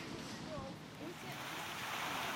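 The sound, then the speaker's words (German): A large, centuries-old water wheel in front of a bakery, now used to generate electricity, churns through water from the Almkanal, giving a steady, fairly loud rush and splash with no pauses, and faint voices murmur underneath. “Direkt vor der Bäckerei dreht sich seit vielen hundert Jahren das große Wasserrad, mit dem heute Energie, also Strom, erzeugt wird.”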